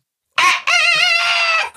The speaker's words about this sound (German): Und dann äh, äh fuhren wir in Ferien und kamen nach vier Wochen zurück und das Ding krähte.